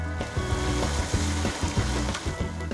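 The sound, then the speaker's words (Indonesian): Chicken fries over a charcoal fire at a fried-chicken stall in the Pasar Gede market area, with a steady sizzling hiss that runs throughout, while a low melodic tone steps along underneath the crackle. “Pak Ali masih menggunakan arang untuk mengolah ayam gorengnya.”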